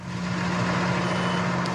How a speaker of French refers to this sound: Là, maintenant, je fais du tracteur.